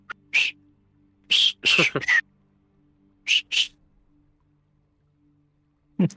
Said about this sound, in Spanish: Ok, bueno, mi compite se pone la armadura. Ahí se escucha el clink, clink, clink, clink. Mientras silbo.